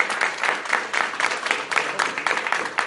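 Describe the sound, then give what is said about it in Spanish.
An audience applauds steadily for Centro El Cerro, the venue hosting the evening, many hands clapping in a dense, even patter that holds at a moderate level for the whole stretch, with no voices standing out. “Eh, así que un aplauso para El Cerro.”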